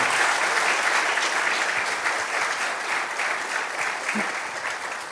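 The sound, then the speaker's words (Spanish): Steady audience applause for a player ranked among the top 115 in the world, a dense wash of many hands clapping at an even, loud level that holds for several seconds and tapers only slightly at the end, with no voices standing out. “Un aplauso a eso, espectacular.”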